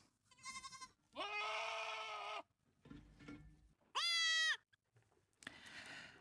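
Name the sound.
goat bleating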